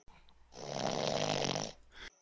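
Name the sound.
voice imitating loud snoring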